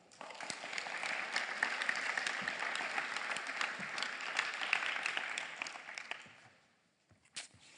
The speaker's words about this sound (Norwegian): Gi henne et skikkelig klapp.